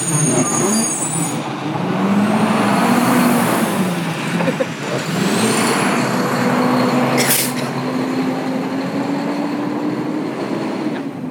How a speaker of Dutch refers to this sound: Wacht even, er komt een auto aan? Een moment.